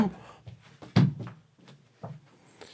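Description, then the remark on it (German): A door is opened, with a sharp thunk followed by a few softer knocks and rattles spread over a couple of seconds. “Jetzt wird die Tür aufgemacht, mein Hund ist besorgt.”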